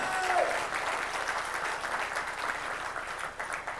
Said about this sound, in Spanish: Denle otro fuerte aplauso a Cristo, hermano. Denle más fuerte el aplauso al Señor, hermano.